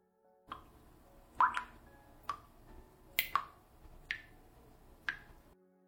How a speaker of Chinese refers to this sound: 紧闭着眼睛，我能看见的就是一片漆黑，我能听得见除了我的喘气声，就是水滴的声音。